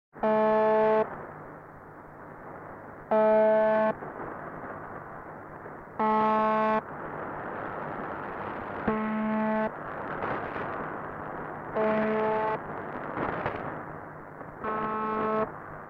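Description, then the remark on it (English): A harsh, droning radio buzz tone from a shortwave numbers station sounds in short bursts roughly every three seconds, six times in all, over a constant bed of hissing shortwave static and interference. No one speaks. “let me introduce you to UVB76, aka the buzzer”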